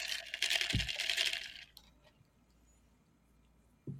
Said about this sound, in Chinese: 有那个冰块最多那个声音， 对啊，很夸张哎。